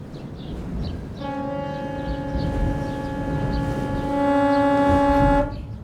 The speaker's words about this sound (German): Entschuldigung, das war jetzt privat. Ich habe versprochen, für eine ganz bestimmte Person zu hupen, die jetzt womöglich gerade am Rheinufer entlang spaziert. Jedenfalls kann sie uns in diesem Moment hören.